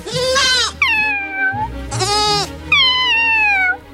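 A newborn goat kid, one of two living in a small hut, bleats loud and high-pitched, several wavering cries in quick succession with short pauses between them; no one speaks.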